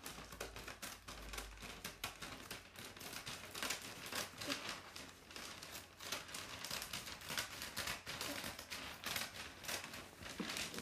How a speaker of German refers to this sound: Schere, die so Wellen in das Papier schneidet.